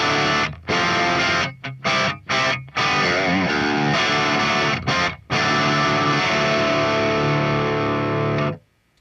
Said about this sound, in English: Um, channel two is like the crunch channel, right? So yeah, just crunchy.